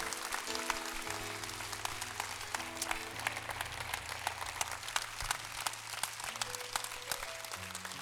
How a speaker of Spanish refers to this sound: Vamos a ver, estos jóvenes que están aquí. Le podemos dar un aplauso a los jóvenes aquí. Estos jóvenes que están aquí. Eso es. Eso es. Eso es. Eso es. Dárselo fuerte, hermano. Dárselo fuerte. Hacelo bien fuerte.